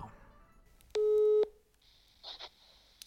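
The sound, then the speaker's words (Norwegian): One loud, steady telephone ringing tone sounds for about half a second, heard through a phone line during a call to someone in Stavanger, followed by quiet line hiss and a couple of faint clicks. “Ja, du har, jo, du har dratt hjem til Stavanger, så jeg må jo ringe deg.”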